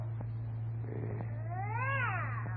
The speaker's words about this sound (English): Listen to that cat. If that ain't creating a public nuisance, I'd like to know what it is.